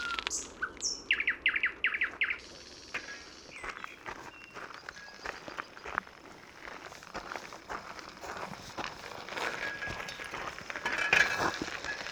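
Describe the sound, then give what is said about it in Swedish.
A nightingale sings, opening with a burst of loud, rapid repeated notes, then varied whistles and trills over a dense background of other birdsong and faint footsteps of someone walking on a boardwalk out among wet meadows edged with water horsetail and reed grass. “Och det är så mycket näktergal så det är svårt att urskilja en annan.”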